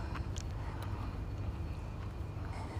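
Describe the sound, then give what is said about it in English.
A heavy wood chipping lorry's engine rumbles low and steady as it pulls to a halt by Tooting Gardens, with faint background noise and no voices. “Now, the wood chipping lorry has now pulled to a halt”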